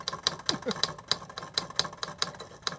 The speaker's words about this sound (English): oh, the ding. yeah. Oh, that's an old school. Right, you, you put out an actual typewriter. I love it.